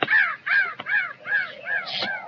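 Crows caw in a steady series of about five harsh, rasping, loud calls in a canyon at sunset, with a brief sharp click between them and no talking.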